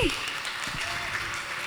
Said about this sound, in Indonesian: Boleh tepuk tangan sekali untuk